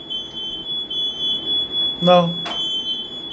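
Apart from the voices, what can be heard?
smoke alarm beeping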